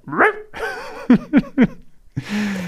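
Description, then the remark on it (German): A person imitates a dog while going into the yoga dog pose, starting with whiny yelping sounds, then three quick, sharp barks in a row, ending with a drawn-out, growly vocal tone, fairly loud. “Und dann gehen wir in den Hund und dann macht er.”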